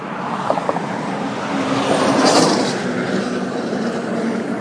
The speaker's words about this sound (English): Really big pickup trucks. Oh, it's all so close.